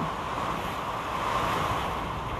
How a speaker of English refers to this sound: And in this moment of recording this to you, I don't know if you can hear this wild rain